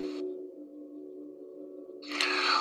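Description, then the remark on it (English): A gong rings with a steady low hum and layered sustained overtones. Near the end it swells into a brighter, louder shimmer spread across the upper range. “Then when you play the gong, you're I mean you're hearing all kinds of overtones, you're hearing deep subtones, it's a full spectrum sound.”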